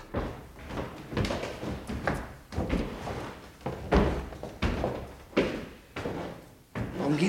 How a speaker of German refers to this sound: Richtig, die Tür wird geöffnet.